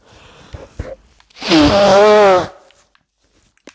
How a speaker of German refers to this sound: So, ähm, jetzt wird es mal kurz unangenehm. Ich muss mal meine Nase putzen. Und zwar live on tape.